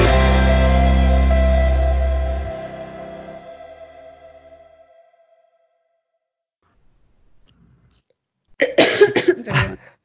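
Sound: loud coughing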